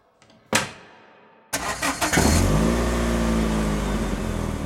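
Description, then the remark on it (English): After a sharp click, the engine of an old car, a flivver, cranks and sputters to life, then settles into a steady, throaty low rumble as it is driven and stopped a couple of houses down, with no voices. “followed my flivver a few minutes later, careful to stop a couple of houses down.”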